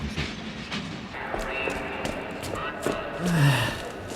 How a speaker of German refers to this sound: TKKG standen neben dem leeren Zug und guter Rat war jetzt teuer. Aber am gegenüberliegenden Gleis, also auf dem gleichen Bahnsteig, warteten Reisende auf ihren Zug